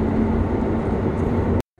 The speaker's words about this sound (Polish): Jestem na krakowskim tak zwanym metrze, czy w krakowskim tak zwanym metrze, czyli Kraków Główny Tunel.